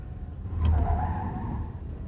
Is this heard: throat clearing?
no